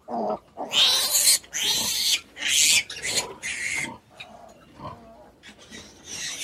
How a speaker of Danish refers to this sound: Jamen, der er så mange små grise, der slås om den samme pat, siger man det, på Øveret, at, øh, at der er virkelig hård kamp om. Der er simpelthen ikke nok.